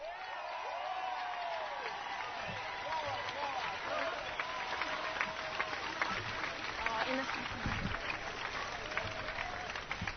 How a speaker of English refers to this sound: Um, while my family and partners' families coming up here, can we just have a massive round of applause for all the organisers who pulled off this incredible march today?